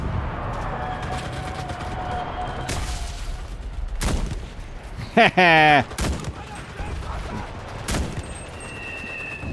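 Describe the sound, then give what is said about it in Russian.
Video game gunfire in a battle set in Normandy: a handful of sharp, loud shots spaced a second or two apart, with a short rapid burst midway, over a constant rumbling battlefield din and a brief tonal cry. “Выстрелил в ногу.”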